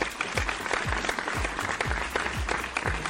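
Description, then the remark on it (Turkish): A burst of sustained applause, many hands clapping densely and loudly throughout, with a low thumping beat pulsing underneath about twice per second. “Ee, alkışı baştan gönderiyorum.”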